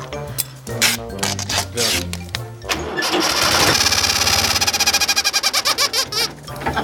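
An engine cranks and starts up, settling into a loud, rapid chugging, while a rubber chicken jammed on the exhaust squawks and honks in wavering, squeaky tones.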